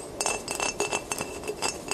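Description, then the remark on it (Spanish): A finger taps on the glass of a mirror at night about half a dozen times in a fairly even rhythm, each tap short, light and sharp, clear against a quiet background. “El sonido era el de un dedo golpeando el vidrio.”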